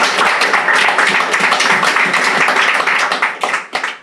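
A crowd applauds steadily for several seconds, a dense, loud wash of many hands clapping at once, with no voices, before the clapping thins out and fades at the end.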